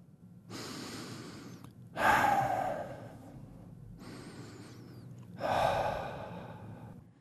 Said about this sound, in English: All this heavy breathing is just to point out that animals breathe in oxygen, which we also say is O2, and out carbon dioxide, which is CO2.